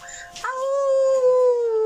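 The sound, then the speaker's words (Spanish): A person howls like a wolf: one loud, sustained vocal note that starts after a brief breathy onset and slowly glides downward in pitch for over a second. “Nos necesitamos, elevamos el aullido.”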